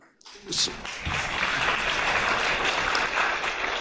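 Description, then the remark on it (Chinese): An audience bursts into applause after a brief quiet start, the clapping quickly building into a dense, steady roar of many hands that holds at an even, loud level throughout. “为什么要鼓掌，我也不知道，是更失语。”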